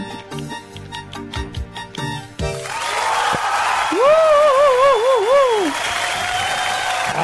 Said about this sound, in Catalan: Aplaudiments i tot, eh?